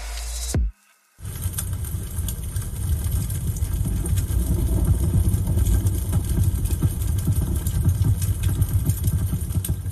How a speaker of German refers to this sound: Im ersten Moment hätte ich auch gesagt, nochmal Regen, aber es lodert irgendwas. Das ist Feuer. Also was wird das sein? Kaminabend oder was?